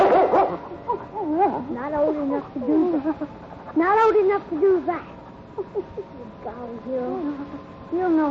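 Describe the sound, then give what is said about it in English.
A dog yelps and whimpers in a steady run of short, pitched whines and barks, moderately loud, with a faint steady hum underneath. “how lucky you are to be a dog.”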